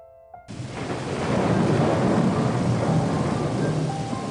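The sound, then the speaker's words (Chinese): A loud, sustained rumble of thunder from lightning bursts in after a brief moment of faint tones, rolling steadily over a dense hiss of falling rain that continues to the end. “窗外白光闪过，闪电的轰鸣声夹杂雨滴从天而下。”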